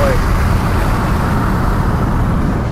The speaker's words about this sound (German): hört es zwar laut, man hört die Windgeräusche, aber es wummert nicht. Ich kann also bei jedem Tempo problemlos mit offenen Fenster fahren